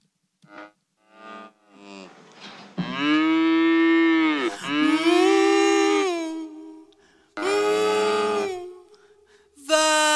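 A cow moos repeatedly: a couple of short lowing calls, then several long, drawn-out moos, loud and harmonically rich with a low, bending pitch, with no talking over them.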